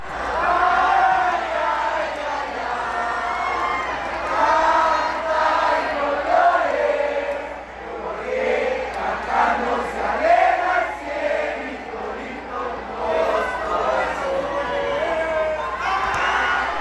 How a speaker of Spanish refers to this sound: Al final el público aplaudió y aclamó a sus jugadoras que dieron un gran espectáculo.